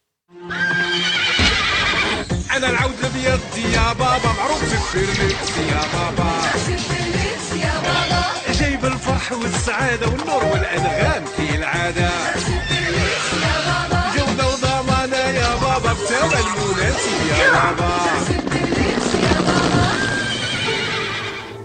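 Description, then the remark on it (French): A horse whinnies and neighs repeatedly over the steady, rhythmic clip-clop of hooves. The sounds are loud, filling the whole stretch with no one speaking. “la semaine du cheval. Vous avez sûrement reconnu Ousbou El Faras, mais il y avait aussi des choses comme ça.”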